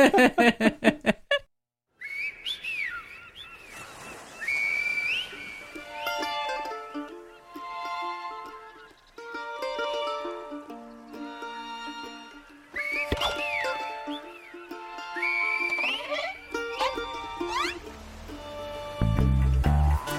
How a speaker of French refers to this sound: on entend une petite chanson d'abord